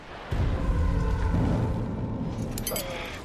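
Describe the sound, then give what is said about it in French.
A surface-to-air missile explosion hits an aircraft flying over the Ural Mountains: a sudden loud blast followed by a heavy, sustained roaring rumble that slowly fades over a few seconds, with no voices. “Ce sont des missiles sol-air. L'avion est touché, il perd de la puissance.”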